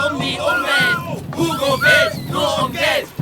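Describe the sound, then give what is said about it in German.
A crowd of local residents protesting against visitor traffic to a jungle theme park passing through their village shouts and chants together, loud, with overlapping voices rising in rhythmic, yelling bursts over a steady din. “Aber sag mal, was passt den Demonstranten eigentlich nicht?”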